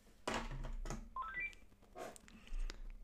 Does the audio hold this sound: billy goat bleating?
no